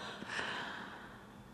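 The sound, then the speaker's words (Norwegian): A single long, deliberate exhale during a guided breathing exercise, a soft steady rush of breath blown out, fading gently toward the end with no talking. “og så skal du bare blåse den byen Blås, blås, blås. Så skal du holde pusten litt der. så skal du bare slippe opp.”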